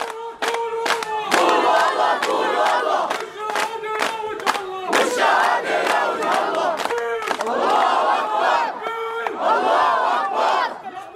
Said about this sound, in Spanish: La multitud empieza a corear consignas como Alá es grande y a expresar su rabia.